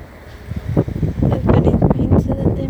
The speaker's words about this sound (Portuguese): minha volta diária acabou e está um vento do caralho, portanto isto vai ter muito ruído.